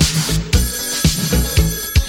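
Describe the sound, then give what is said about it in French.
A telephone rings in a steady repeating pattern, its bright electronic tones pulsing about twice per second, fairly loud with no voices. “Ring téléphone, c'est le grand Sioux.”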